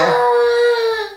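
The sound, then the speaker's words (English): A five-year-old boy lets out one drawn-out, frustrated whine while struggling to do something with his toys on a Saturday morning at home, high-pitched and steady, loud before tapering off at the end. “oh the frustrated sound of a five-year-old who's struggling to do something with his toys.”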